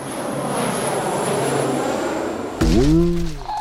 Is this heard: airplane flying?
yes